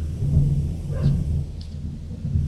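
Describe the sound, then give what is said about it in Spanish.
Thunder rumbles low and steady, a deep continuous roll that fills the whole stretch without fading, heavy with no voices over it. “Eso fue un trueno.”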